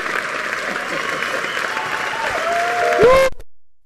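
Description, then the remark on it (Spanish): Sustained, dense applause from a crowd, steady and fairly loud, ending with a brief rising tonal sweep before cutting off abruptly. “Oiga, con, a- con aplauso y todo, oiga.”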